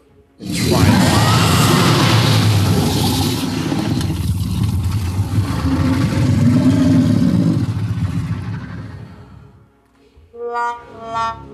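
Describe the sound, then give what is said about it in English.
A monster roar sound effect: one long, loud, gravelly growl that rumbles for about nine seconds before fading, followed by a brief, higher voiced sound. “And it roars again at you.”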